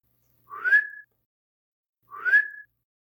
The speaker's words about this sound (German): Er pfeift so zu mir.